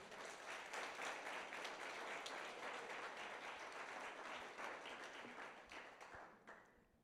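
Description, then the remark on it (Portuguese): A church audience applauds Jesus, sustained, dense applause, many hands clapping together at a steady loud level for several seconds before it thins and fades out at the end. “Aplauda Jesus por isso.”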